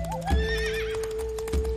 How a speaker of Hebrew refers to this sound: איפה היא? למה היא עדיין לא חזרה? או, אני שומעת את הסוס שלה.